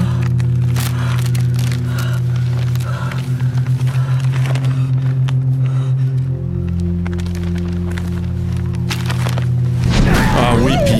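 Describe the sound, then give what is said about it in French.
Continuous crinkling and crackling of large plastic tarps in a greenhouse over a steady low hum, with a voice-like sound rising briefly near the end. “Fait que là, elle arrive, c'est le genre de serre, il y a des grosses tarps mhm. de plastique, puis ça.”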